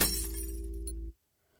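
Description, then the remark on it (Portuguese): A glass cup falls from a table and smashes on the floor in one loud crash, shards ringing and rattling for about a second before the sound cuts off abruptly into silence. “Uma última gota foi suficiente para despencar da mesa e espatifar no chão.”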